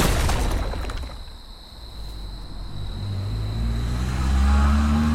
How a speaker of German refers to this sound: Hört ihr es aus der Ferne klingen genauso wie das Brummen eines etwas kaputten Motors, an dessen Steuer Red N sitzt, mit einer fetten Platzwunde am Schädel.